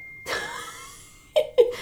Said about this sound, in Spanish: Pero bueno, me distraje aquí con, la notificación y el sonido de fondo.